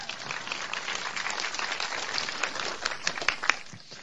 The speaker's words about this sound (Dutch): Geef maar een applaus, ook al, is hij, ook al hoort hij het helemaal niet.